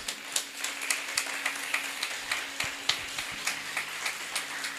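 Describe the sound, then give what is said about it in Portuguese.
Applause from a group, with claps landing in a fairly steady, rhythmic pulse at a moderate level, and no voices over it, as the group applauds the King of Glory. “Você pode aplaudir o Rei da Glória?”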